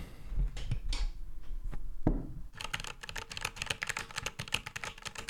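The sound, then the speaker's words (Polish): Rapid clacking of a mechanical computer keyboard, a few scattered keystrokes at first, then a dense, fast burst of loud typing with sharp clicky strikes. “Ja bardzo nie lubię mm, klawiatur mechanicznych. Mam tutaj taką przed sobą. Jak ktoś chce, mogę niej, na niej poklikać chwilę”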